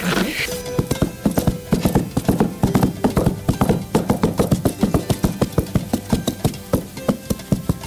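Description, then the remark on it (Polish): A foley artist imitates horse hoofbeats on a simulated snow surface: rhythmic clip-clop steps on a crunchy surface, fairly loud, a continuous trotting pattern with no voices. “wyczarowuje tentent koni i przelot ptaków”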